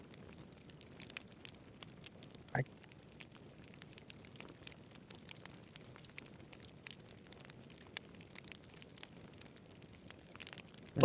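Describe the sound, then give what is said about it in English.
A fire, lit with Charmander's tail, crackles steadily beside the sleeping Pokémon Charmander, with scattered small snaps and pops over a low, soft rumble, one sharper pop standing out early on; no voices, just the quiet ongoing crackle. “All it is is the sound of a fire crackling, right?”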